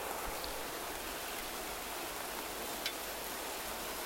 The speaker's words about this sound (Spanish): Está lloviendo que te cagas. Todo es Puerto Rico. Sol, lluvia. Sol, lluvia. Cinco minutos.